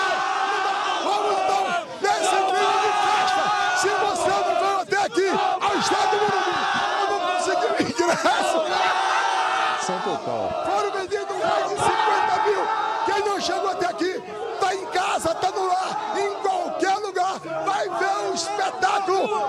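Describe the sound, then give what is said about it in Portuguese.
A big crowd of football fans roars and chants without pause before the final, anxious inside and outside the stadium in Rio de Janeiro; a dense wall of voices with sustained shouts and cheers swelling throughout, loud and continuous. “Já no Rio de Janeiro, a torcida está ansiosa dentro e fora do estádio.”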